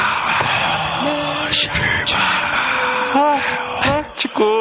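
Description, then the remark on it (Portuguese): A voice imitates the roaring football crowd of the Maracanã stadium, a loud, continuous rushing hiss broken by rising and falling howled whoops, carried on for several seconds without any words. “Ouçam, ouçam, esse é o som do Maracanã.”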